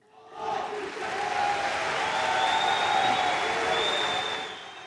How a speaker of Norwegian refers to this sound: I nasjonalforsamlingen i Ankara blir statsminister Ahmed Davutoglu møtt med jubel og applaus når han går på talerstolen for å redegjøre for luftangrepene mot PKK i Nord-Irak.